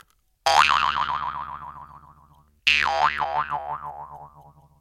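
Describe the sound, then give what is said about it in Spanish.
Two loud jaw harp twangs from a small key-like metal instrument played with the mouth, each a sharp pluck followed by a wobbling, warbling boing that slowly fades over about two seconds. “que lo vas logrando tú con la boca, con las, aprovechando la, vibración del propio metal, en este caso, bueno, un instrumento metálico, una pequeña cuña, digamos, como una llave”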